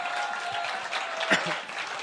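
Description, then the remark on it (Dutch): A crowd applauds steadily, a dense wash of many hands clapping at once, with a few scattered voices faintly mixed underneath and one slightly louder burst partway through. “Geef nog even een, wat eh, luider applaus.”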